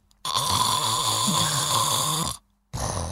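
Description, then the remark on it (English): A recording of a man snoring loudly, one long rumbling, vibrating breath lasting about two seconds, then a brief silence before the next snore begins. “it's like someone playing the trombone, but that's also falling asleep at the same Okay. time”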